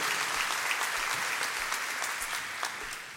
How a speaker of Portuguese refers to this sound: Agora, pode ser uma salva de palmas, pode ser.